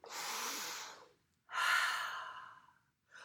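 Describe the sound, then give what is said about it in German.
A deep breath drawn in and let out during a guided relaxation exercise, followed by a second long breath with a breathy, slightly whistling tone, and the start of a third at the end. No talking. “Aber vorher atmen wir nochmal tief ein, so richtig.”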